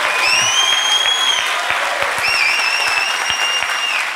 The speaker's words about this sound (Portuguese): Eu senti que essas salvas de palmas foram um pouco tímidas por parte de alguns.